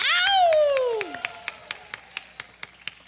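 A falling, whooping cheer gives way to steady, evenly spaced hand claps, moderately loud, like a small group applauding in rhythm for the person who made the art for the event.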